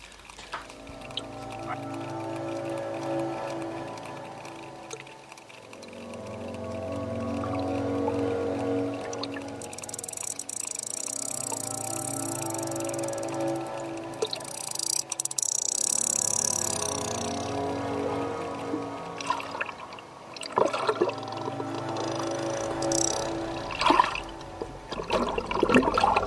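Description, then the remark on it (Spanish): Deep underwater ambience for a sperm whale diving down toward the ocean floor: low droning tones swell and fade in slow waves, with bursts of rushing, bubbling water and scattered faint clicks. No voices. “Vamos a seguir a un cachalote en su descenso a las profundidades.”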